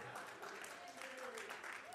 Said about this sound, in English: Dude, they clap for you without me even asking them to. Everybody clap for that man right there. Give him a hand, all right?